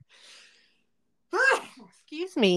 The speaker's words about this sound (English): Bless you.